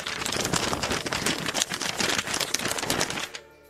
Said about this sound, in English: It is pandemonium here on Fox Sports Radio, uh, and we now have a piece of paper falling down onto the desk, Brady.